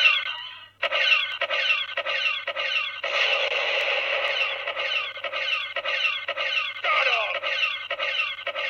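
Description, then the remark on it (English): Tinny electronic explosion effects from a small toy speaker: a rapid run of crackly noise bursts, a longer sustained rumble in the middle, then more pulsing blasts, loud, with no talking. “I like explosions.”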